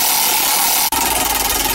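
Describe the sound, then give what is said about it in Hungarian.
A prize wheel with several no-win segments spins with a fast, steady, loud clicking rattle, broken by one brief dropout before the rhythmic ticking carries on. No one speaks. “Oké, okay, na pörges akkor egyet, megnézzük, hogy mi a...”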